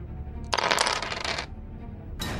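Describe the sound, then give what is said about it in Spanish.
Two dice are rolled, rattling and clattering across a hard surface for about a second, fairly loud, followed by a brief fresh burst of clicking near the end; they land on a four and a three. “Lanza tus dos dados y le sumas un más uno.”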